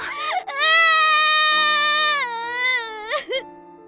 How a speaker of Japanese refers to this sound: なんじゃなんじゃ泣いてちゃわかんねえぞ